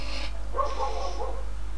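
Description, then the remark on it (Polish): A dog at the speaker's home barks faintly, a short muffled burst followed by a longer, whining bark, heard alone over a steady low background hum. “Jeżeli psy u mnie szczekają, to przepraszam.”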